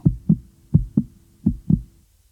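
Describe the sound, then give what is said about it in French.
A heartbeat thumps in three steady lub-dub pairs, low and muffled, evenly spaced at a calm resting pace, with no voices over it. “Rappelons également que les médecins ne comptent pas le pouls, mais recherchent sa fréquence et son rythme, qui peuvent être pour l'un ou pour l'autre inégal, véhément, galopant, intermittent.”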